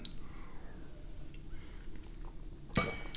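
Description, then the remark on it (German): Glasses clink together once in a toast with homemade mirabelle plum schnapps, a single bright, ringing chink near the end, fairly loud, after a few seconds of quiet room noise. “Ich würde mal sagen, Prösterchen. Zum Wohl.”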